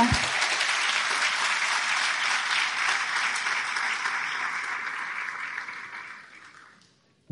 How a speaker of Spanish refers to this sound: wow, muchísima gente por primera vez, ¿qué tal si le damos un aplauso? Qué bueno.